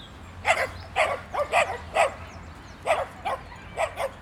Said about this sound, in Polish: Zresztą dobra, najpierw posłuchajmy sobie piesków. Ładne pieski, proszę bardzo.